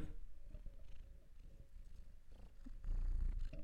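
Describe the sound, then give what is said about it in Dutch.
A cat lying on a person's lap purrs steadily, a low rumbling drone with a pulsing rhythm that grows louder and heavier toward the end, with no voices present. “Ja, klein knorretje. Purper.”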